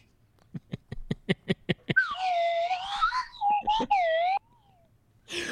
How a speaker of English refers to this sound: oh, you know, this is not a slide whistle. You know what the fuck this is? Uh, this is a flying saucer.